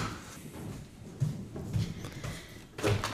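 window being closed

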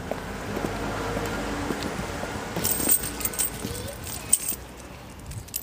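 keys jangling

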